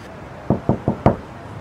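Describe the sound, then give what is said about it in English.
A television personality bangs on the front door of a house in Kensington: four heavy bangs in quick, even succession, the last one hardest, loud against a quiet background with no voices. “We cross live to their Kensington base now, where the television personality appears to be banging on their front door.”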